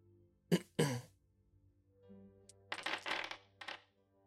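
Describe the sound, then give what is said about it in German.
Two short throat-clearing bursts, then dice are rolled for a Perception check, rattling and clattering onto a hard surface in a quick flurry of clicks lasting about a second, with no talking. “Ähm, ja, würfel doch mal Perception.”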